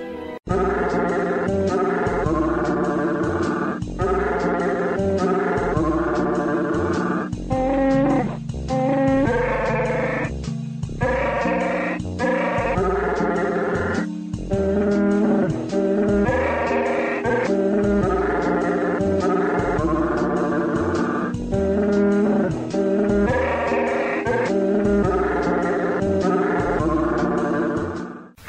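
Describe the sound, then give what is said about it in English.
A growling, moaning creature-like voice sings a slow Christmas carol, a holiday favorite, holding long wavering notes in a steady melody for nearly half a minute, loud, with no talking. “present that beautiful holiday favorite, Silent Night, sung by that wonderful soprano. Chewbacca.”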